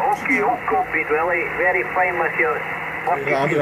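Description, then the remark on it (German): A voice transmission over shortwave radio during a demonstration of making contact (a QSO, a radio conversation), thin and tinny with the highs cut off, speaking steadily for a few seconds over a constant background hiss. “demonstriert für uns eine Kontaktaufnahme per Kurzwelle.”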